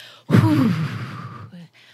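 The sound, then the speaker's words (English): A single loud, forceful breath pushed out through the mouth, like forcefully blowing out a candle, as part of a breathing exercise to regulate the nervous system: a long airy whoosh lasting over a second, clear, followed by a brief softer breath sound. “the breathing in for three to five and breathing out for four to six. Like you're blowing out a candle forcefully with sound.”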